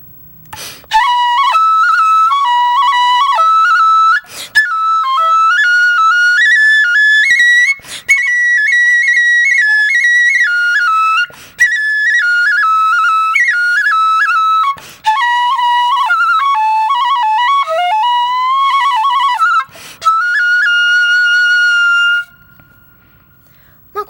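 A Hiroshima kagura bamboo flute (kagurabue) plays the kagura tune '鬼林', lively in several phrases with short breaks between them, its bright, reedy tone sliding between notes, loud, with no voices over it.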